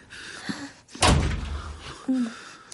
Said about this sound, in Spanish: Cierro la puerta.